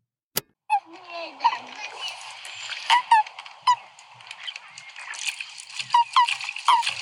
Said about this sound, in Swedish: Okej, okay, du tror de låter så. Här är alltså hur våra paddor lät.